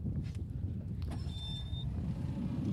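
A car engine rumbles steadily and low throughout, with a couple of brief clicks and a thin, high electronic whine lasting about half a second. No one speaks.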